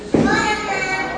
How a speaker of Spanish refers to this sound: perdón por el ruido, estamos aquí en la casa y están entrando mis hijos.